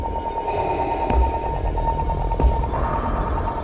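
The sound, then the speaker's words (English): A steady, buzzing hum of an Imperial probe droid in a Star Wars Vader Immortal teaser drones on with a sustained electronic tone and a faintly pulsing texture, broken by two soft low thumps; no one speaks. “Listen to this. There's the probe.”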